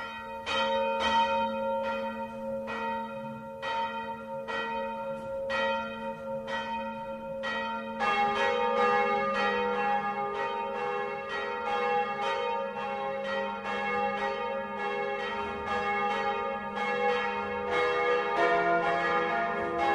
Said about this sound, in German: Es ist 12 Uhr. Das Mittagsläuten kommt heute aus Prien am Chiemsee.